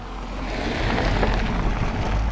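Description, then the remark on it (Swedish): A car passes by outdoors, its broad rushing noise swelling gradually to a peak midway and holding fairly loud, with a steady low rumble underneath and no voices. “Nu kommer en bil här.”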